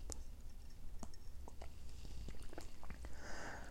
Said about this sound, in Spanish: Me tengo un traguito de té.